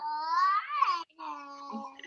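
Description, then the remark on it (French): A baby, still awake late at night, makes two drawn-out, high-pitched vocal sounds, whiny and sing-song, separated by a brief pause. The voice is fairly clear, with no one else talking. “si vous entendez bébé en arrière-plan, c'est normal.”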